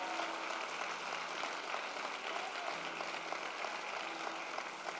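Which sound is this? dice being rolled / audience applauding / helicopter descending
audience applauding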